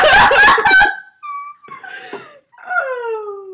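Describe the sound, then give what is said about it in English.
A loud, harsh scream bursts out outside first, followed by a few drawn-out wailing cries that slide downward in pitch, with short gaps between them and no talking. “As there's a loud scream outside.”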